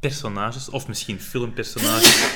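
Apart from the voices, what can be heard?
sneeze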